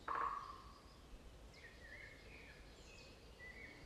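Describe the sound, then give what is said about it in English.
A woodpecker gives one short, sharp call at the start, followed by faint, thin bird chirps drifting in a quiet, hushed forest background. No one speaks. “the woodpecker”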